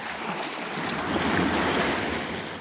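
Sea waves off East Greenland wash steadily in a broad, hissing roar, swelling slightly toward the middle, with some wind rumble underneath and no voices.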